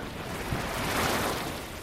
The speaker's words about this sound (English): Walk a little further along the lower geyser basin boardwalk, you'll come across the Spasm Geyser. It's a small geyser, and how much water it shoots up depends on the time of year